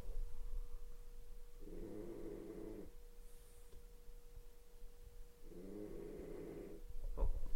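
Two drawn-out snores from a sleeping pet, each a rough, buzzing breath lasting about a second, separated by a few seconds of quiet hum; moderately loud, with no talking.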